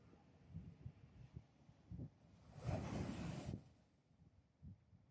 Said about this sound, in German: Allerdings ist mit dem Meer auch nicht zu spaßen. Was jetzt so ein friedliches Rauschen und Auf und Ab der Wellen ist, wird besonders im Winter auch gern mal zur Sturmflut.